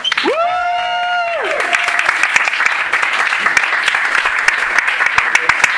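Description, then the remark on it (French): A loud, sustained burst of audience applause welcoming a comedian to the stage, opening with a drawn-out whooping cheer from one voice, followed by dense, steady clapping that continues to the end. “Est-ce que vous êtes prêts oui, Alors s'il vous plaît, faites un maximum de bruit”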